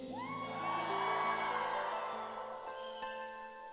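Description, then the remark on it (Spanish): A crowd of worshippers lets out a loud, sustained shout of joy, many voices whooping and yelling together for a few seconds before the cheer thins out, with a steady musical tone underneath. “A ver cuántos pueden dar un grito de júbilo.”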